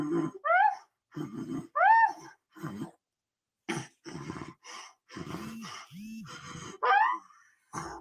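A girl's labored, strained breathing after a seizure: a run of harsh gasps, groaning moans and coughing sounds in uneven bursts with short pauses, some rising in pitch like wheezy cries, with no talking.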